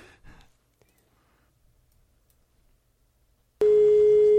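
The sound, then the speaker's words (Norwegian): After a soft breath and a few seconds of near silence, a loud, steady telephone ringing tone suddenly sounds on the line as a man calls a woman's home, holding unbroken to the end. “Og i det klippet her så prøver han å ringe til en dame, men det er jo ikke hun som tar telefonen.”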